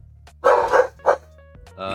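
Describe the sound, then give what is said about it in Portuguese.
A Pomeranian lets out a quick series of three or four sharp, high-pitched yaps, with a short pause before the last one, over a low steady background hum. “Mano, mudou Ai, um Lulu da Pomerânia aqui pra trás, velho.”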